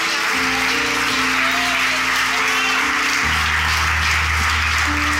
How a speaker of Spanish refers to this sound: Vamos, dale un aplauso a Jesús.